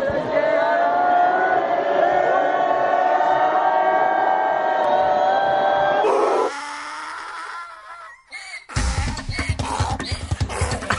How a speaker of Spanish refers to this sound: Pero pues bueno, ahí los gritos merecidos o no, a nuestros funcionarios públicos, ahí los taxistas se, alborotaron cuando vieron el volante.